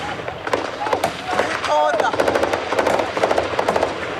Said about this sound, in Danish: I Somalias hovedstad Mogadishu er soldater fra den afrikanske union i skudveksling med en usynlig fjende. Soldaterne er fra den afrikanske unions stabiliseringsmission AMISOM,